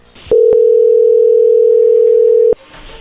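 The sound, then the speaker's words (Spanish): A steady, loud telephone dial tone of an outgoing call holds a single mid-pitched hum for about two seconds, framed by brief clicks as it starts and stops, with no talking over it. “Eh, le va a llamar el lobo, ¿está bien?”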